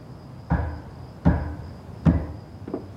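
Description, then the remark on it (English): Footsteps and a strange knocking down a hallway: four heavy, hollow knocks or footfalls thud at a slow, slightly uneven pace, each ringing briefly. The last one lands softer, with a faint steady high whine running underneath. “She's woken up by the sound of footsteps and a strange knocking down the hall.”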